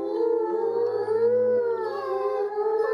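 Several wolves howl together in a sustained, overlapping chorus, their long, wavering tones gliding slowly up and down. The howls are steady and fairly loud throughout, with no talking.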